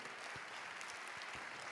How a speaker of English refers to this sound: Come on, y'all can clap louder than that for Jesus. Amen. Hallelujah.